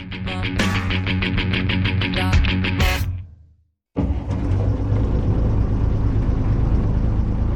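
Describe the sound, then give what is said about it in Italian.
A Peruvian Navy tugboat engine rumbles steadily at sea while towing a boat in the Humboldt Current, 90 miles off the coast of Peru, a loud, continuous low drone with broad hissing noise on top. It follows a brief tonal passage that cuts to silence. “Un rimorchiatore della marina peruviana ci sta portando nella corrente di Humboldt, a 90 miglia dalla costa.”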